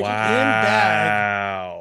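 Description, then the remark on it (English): An original rubber VeggieTales squeaky toy from 1998, found at Goodwill, is squeezed. It gives one loud, drawn-out squeal of almost two seconds. Its pitch wavers at first, then settles into a steady, bleat-like tone before tapering off. “Um, they're squeaky toys, and they're from 1998.”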